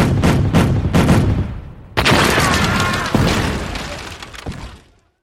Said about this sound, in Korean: 다음 날인 9월 초하루 화준구미에서 외적의 큰 배 다섯 척을 만났다. 적선이다! 포병은 총통을 발사하라!